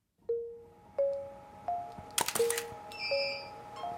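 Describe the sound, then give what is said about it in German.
Camera shutter clicks, each followed by a short high flash whistle signalling that all the lamps have fired, repeating about every 0.7 seconds, as photographer Gerald Raab shoots in a dark cellar of the Bamberger Residenz. A sharper burst of rapid clicks breaks in midway, with no one speaking. “Da gibt es einen Klick und da gibt es ein Pfeifen.”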